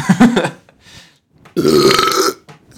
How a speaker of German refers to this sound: Unser Manager hat meint, wir sollen, wenn wir uns, wenn wir schon rülpsen im Podcast, uns danach entschuldigen. Immer.